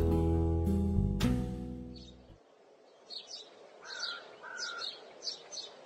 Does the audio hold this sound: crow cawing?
yes